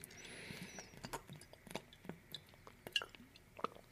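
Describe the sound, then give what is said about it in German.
Quiet sipping and swallowing of water: a series of soft, irregular wet clicks and small gulps over a low background hiss, with no talking. “Brauchen mal einen Schluck Wasser hier.”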